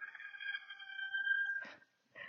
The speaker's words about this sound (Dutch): echt zo'n plaatje uit de film dat een haan eh, gaat eh, kraaien